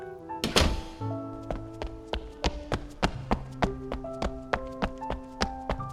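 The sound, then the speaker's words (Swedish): A door shuts with a single heavy thud, followed by a steady run of lighter rhythmic taps and knocks with a faint tonal ring. “Sen stänger de dörren.”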